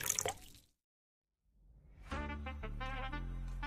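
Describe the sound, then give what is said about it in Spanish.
Water pours from a Tetra Pak carton of Cristal water in a short splashy burst, then after a brief silence a longer, louder pour follows with gurgling, resonant tones as the liquid fills a container. “Ahora vamos a hidratarnos con agua cristal en su nueva presentación de Tetra Pak.”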